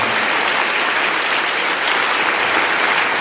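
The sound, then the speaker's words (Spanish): Steady, continuous applause from a group fills the whole stretch, a dense crackle of many hands clapping at an even loudness with no voices breaking through, given as applause for the Holy Catholic Church. “Eso, un aplauso para la Santa Iglesia Católica.”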